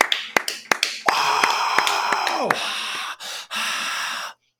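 A brief round of applause: several sharp hand claps in quick succession, then a denser, sustained burst of noisy clapping that runs a few seconds and stops abruptly.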